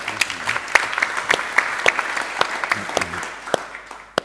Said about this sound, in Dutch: Dankjewel. Wil ik een applaus?